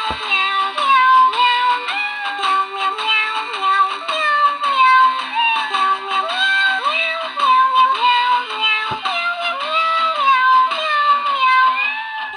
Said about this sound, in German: Das ist nämlich eine klingende Geburtstagskarte und ich mache die jetzt mal an, damit ihr auch was davon habt.